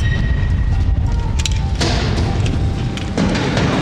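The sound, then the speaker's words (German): A heavy metal door to a turbine tower swings open with a deep, booming clunk midway, over a constant loud low rumble and a faint thin whine; no one speaks. “Bevor sich dann die Türe zum Turm geöffnet hat.”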